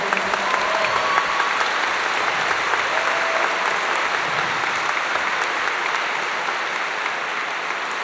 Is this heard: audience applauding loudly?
yes